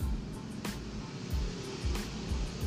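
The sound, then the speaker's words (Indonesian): A motorcycle with a loud exhaust passes through a housing estate, not speeding, audible from about 45 meters: a low, pulsing engine rumble rolls by, moderately quiet, with a couple of sharp clicks over a steady background hiss. “dia kalau misalnya tahu knalpotnya kayak gitu ya jangan lewat perumahan lah itu knalpot udah bisa gue dengerin dari jarak 45 meter kali gede banget terus nggak ngebut loh dia dia nggak ngebut”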